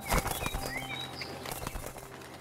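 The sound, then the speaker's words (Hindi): A parrot's wings flap in a quick series of soft, papery beats as it takes flight to search the whole forest, with faint high chirps and whistles in the background. No one speaks. “फिर घोड़ा कहाँ गया ये जानने के लिए तोते ने उड़कर पूरे जंगल को छान मारा”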